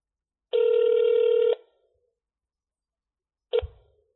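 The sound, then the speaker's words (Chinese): A telephone call rings with one steady, buzzy electronic tone lasting about a second. After a pause comes a brief clipped second tone with a soft low thump as the call is transferred to voicemail. “您的电话将转接到语音信箱，嘟声后开始计费。”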